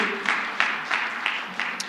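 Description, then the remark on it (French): An audience applauds the first team, a dense wash of many hands clapping with a few sharper individual claps standing out at regular moments, fairly loud and without any talking. “Moi, je crois qu'on veut applaudir la première équipe parce qu'ils ont été très, très courageux.”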